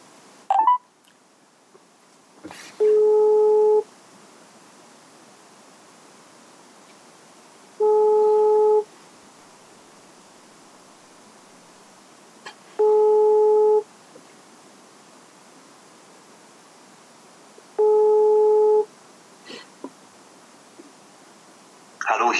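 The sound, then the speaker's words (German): A telephone ringback tone, heard while calling a mobile phone, repeats four times, each steady electronic tone lasting about a second with roughly four-second gaps of quiet between them, heard clearly with no talking. “Vielleicht können wir ihn jetzt mal live anrufen und mal gucken, was passiert.”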